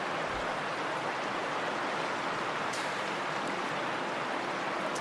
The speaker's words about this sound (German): Und wir halten die Augen auf und wir sehen ganz viele Bäche fließen. Kühles Wasser, das den Berg runterspritzt, vielleicht ähnlich wie hier.